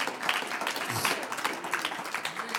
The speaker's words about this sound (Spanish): Un aplauso al Señor.